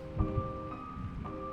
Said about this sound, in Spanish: Podía oírse las gotas de lluvia rebotando en el alféizar de chapa.